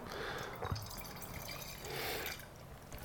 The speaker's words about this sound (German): hole ich nur die Flasche, mhm. gieß was ein und hatte ihn in der Zwischenzeit auch nochmal in den Kühlschrank.